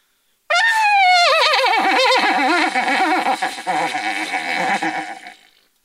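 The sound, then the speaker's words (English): An imitated horse whinny performed as a solo: one loud, bright, quavering call that starts high and slides downward in shaky, wobbling steps for about five seconds, then fades out, heard alone with no talking. “And I stood up for my first solo, the horse.”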